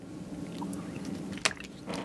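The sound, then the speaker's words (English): Someone takes a drink of water, with a low wet rumble and a couple of sharp gulping swallows near the end. No one speaks. “Get your guzzle of water. I needed it because my lips is dry.”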